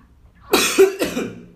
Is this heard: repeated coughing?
yes